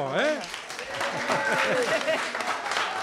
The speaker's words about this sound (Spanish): es que les queremos dar un aplauso aquí todo el público,